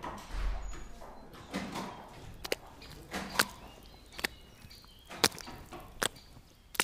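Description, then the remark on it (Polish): Footsteps squelch through thick mud, with sharp wet smacking steps at an uneven pace over a low, rumbling background. No one speaks. “Powiem panom, że takiego błota, takich efektów dźwiękowych, to nawet by w studiu Teatru Polskiego Radia nie zrobili.”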